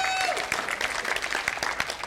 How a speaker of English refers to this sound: Can we give all our musicians a hand clap?